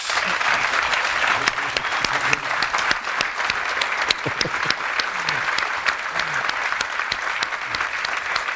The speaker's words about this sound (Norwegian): Kan vi få gitt de to gutta en stor applaus?